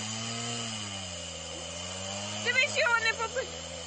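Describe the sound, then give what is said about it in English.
A chainsaw engine drones steadily and fairly loud throughout, holding an even pitch, while a few brief voice-like cries break in over it toward the end. “Oh boy, he got the chainsaw.”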